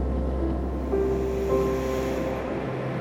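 Ocean waves wash onto the shore in a steady, rumbling roar of surf with a deep low end, continuous throughout with no distinct breaks and no voices.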